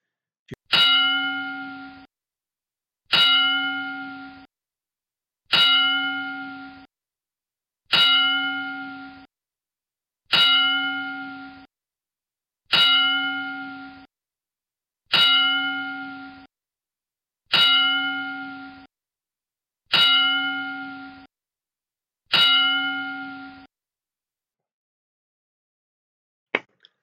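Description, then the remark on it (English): A ring bell is struck ten times at a slow, steady pace as a ten-bell salute in tribute to Butch Reed, each clanging tone ringing out and fading before the next, with no talking in between. “Let's pay tribute now with a 10 bell salute”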